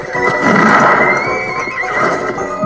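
A horse neighs loudly, a long quavering whinny, while hooves clip-clop underneath. No one speaks.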